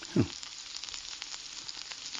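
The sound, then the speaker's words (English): Food sizzles steadily in a frying pan, a dense crackling hiss throughout, with a brief louder pop or clink near the start. No voices, just the continuous frying. “Frying pan was the correct answer.”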